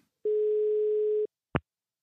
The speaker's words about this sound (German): Ich probiere mal durchzuklingeln